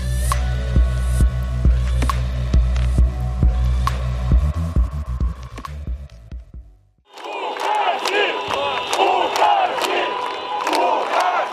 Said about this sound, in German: Das, was da gerade eben zu hören war, war ein Eindruck von einer Demonstration in Belarus.